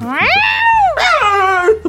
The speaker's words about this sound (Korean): 이제 고양인데 우리 숨어 있는 거 눈치채면 저 녀석이 또 난리 날치거든. 저, 저 고양이 저거 저거 주인한테 생선 얻어먹으려고 얼마나 애를 쓰는지.